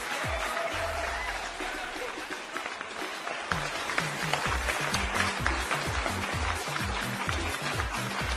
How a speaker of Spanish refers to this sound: Te es más, te voy a poner este y te voy a poner los otros. Doble aplauso.